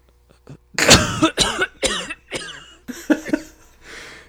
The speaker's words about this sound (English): Why'd you cough on the recording? so unprofessional.